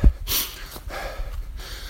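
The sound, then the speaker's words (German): Heavy, breathy panting as someone walks up a hill, a few quick ragged breaths in and out with brief pauses, over a faint low rumble and no talking. “Ähm, geht nämlich jetzt hier wieder einen blöden Berg hoch.”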